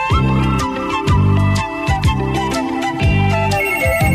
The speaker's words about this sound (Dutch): Ja, die telefoon die gaan we zo meteen even opnemen.